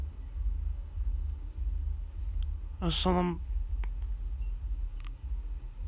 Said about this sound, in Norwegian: Det vibrerer jo helt hit fra den russebussen. Herregud, tenk deg hvor mye det vibrerer inni den bussen der.